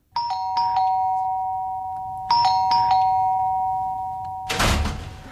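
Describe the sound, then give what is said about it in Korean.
A house doorbell, rung by a visitor at a late hour, chimes twice in a row, each a bright two-tone ding-dong that rings out and sustains, followed by a short burst of rattling noise at the end. No one speaks. “지금 시간이 몇 시인데 집에 와서 띵똥거리고 난리야.”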